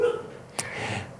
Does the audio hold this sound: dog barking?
no